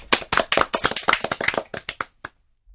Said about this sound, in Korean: 함께 박수로 청해 듣겠습니다.